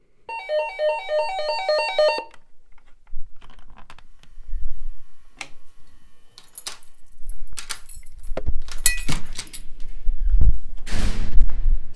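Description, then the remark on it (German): An electronic doorbell chime at the front door of a home plays a short melody for about two seconds in the afternoon, followed by clicks, keys jangling and a lock rattling as the door is opened, ending in a louder clatter and rustle. “Das Aufnahmegerät war gestartet und dann klingelte es an der Tür.”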